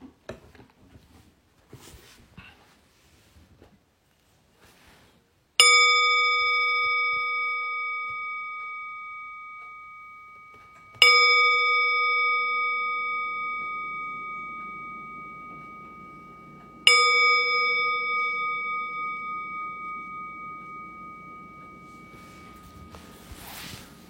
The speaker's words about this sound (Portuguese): Enfim, vamos procurar achar nossa posição e eu lembro, são três toques do sino para a gente começar e um para a gente terminar esse período formal de meditação.